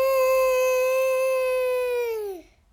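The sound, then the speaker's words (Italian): A single long, high wailing call of a very wild fox, heard far away, holds a steady pitch for about two seconds, then slides downward and trails off. It sounds clear and alone, with no talking. “Era una volpe molto selvatica.”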